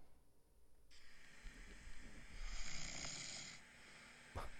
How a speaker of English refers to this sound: Is that snoring? What? This is my husband.